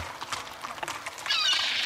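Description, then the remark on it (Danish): A horse ridden over a bridge: hooves clip-clop in an uneven rhythm at moderate volume, followed by a louder, high-pitched whinny near the end; no one speaks. “og når der ikke var nogen skibe at vinke til, så vinkede han til de mennesker, der cyklede, gik eller red på hest over broen.”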